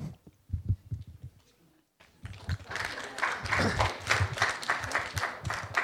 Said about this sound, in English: It's the first time someone has asked that question and got an applause for it, and asked that uh, in that way and, and, got, and got, an applause uh, in all of this.